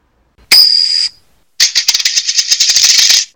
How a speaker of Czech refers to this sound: OK. Coin flip.